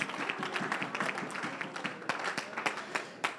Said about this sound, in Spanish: dando el aplauso al Señor, pueden tomar sus asientos.